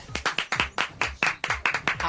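Brisk, steady clapping close by, about ten sharp claps in quick rhythm, like a small group applauding someone's arrival.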